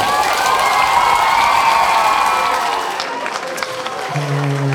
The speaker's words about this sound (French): En tout cas, vous criez fort en masse. Je suis sûre que ça va sonner foule dans, la, dans le chapiteau.